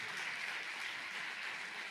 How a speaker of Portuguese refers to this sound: queria que você recebesse nosso pastor aplaudindo ao Senhor. Pode aplaudir mais forte.